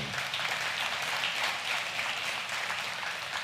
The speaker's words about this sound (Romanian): Cine e pentru prima dată în biserica noastră? vrem să-l salutăm. Pentru prima dată. Ridicați mâna sus. aplaudați